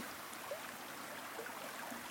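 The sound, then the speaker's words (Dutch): A small waterfall rushes steadily in the distance, a soft, continuous wash of water noise with a few faint chirps scattered over it, heard outdoors in nature by a still blue lake ringed by trees in the morning. “Het watervalletje dat stroomt in de verte.”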